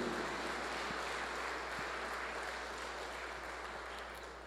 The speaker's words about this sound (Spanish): Le damos un aplauso a nuestra Madre, la Virgen María.